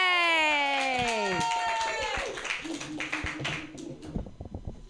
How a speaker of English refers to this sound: That is an appropriate amount of clapping.